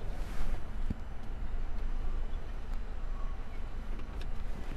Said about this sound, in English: So I've stopped talking because I'm waiting to get a ticket to drive out into the car park.